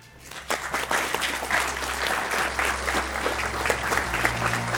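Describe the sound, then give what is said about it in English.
An audience at the Commonwealth Club of California bursts into steady applause to thank speaker Bob Matthews of Medisync.com after a brief quiet start, the dense clapping holding at a constant level for several seconds with a low hum underneath. “Help, uh, join me in thanking our speaker.”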